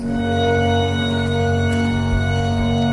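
Steady, sustained music from a staged opera production: rich held tones drone evenly for a few seconds at a full level, with no voices over it, during a scene where a woman lies on a bed before a cyclorama showing clouds and images.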